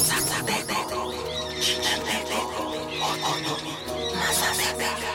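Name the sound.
northern mockingbird song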